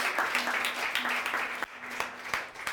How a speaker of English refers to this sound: Come on, let's give God a clap.